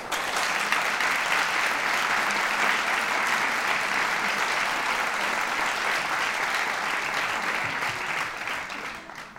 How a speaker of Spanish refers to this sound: Eh, yo les pido que no imiten a este público veneciano del Teatro San Luca, ¿eh? y que en cambio, en vez de con mallidos de gatos, con ladridos, etcétera, etcétera, reciban a nuestros actores con un sonoro aplauso.